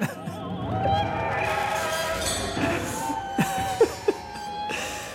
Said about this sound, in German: Das klingt so als wie so ein klemmendes, wie so ein, wie so ein, Eis, so ein Garagentor, das irgendwie klemmt. So klingt es. Das ist neue Musik von Rebecca Saunders. Das Stück heißt Skin.